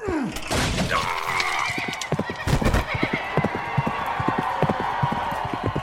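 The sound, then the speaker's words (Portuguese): A horse lets out a sharp whinny, followed by a steady, rhythmic clatter of hooves on a hard surface, fairly loud, with a brief heavier crash partway through as a rider struck by a lance falls together with his horse. “Nisso ele caiu, caiu junto com o cavalo.”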